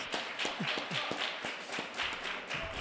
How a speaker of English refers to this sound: It's real quiet in here after that. I think she deserves another round of applause.